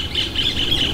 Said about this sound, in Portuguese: Olha o passarinho cantando, que coisa bonita.